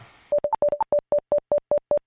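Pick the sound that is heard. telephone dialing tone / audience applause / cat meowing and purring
telephone dialing tone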